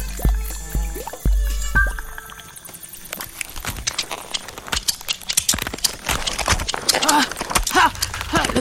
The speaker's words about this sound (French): On dirait des bruits de pattes. Un, deux, trois, quatre, cinq, six, sept, huit. Huit grandes pattes. Ah, euh, C'est un scorpion.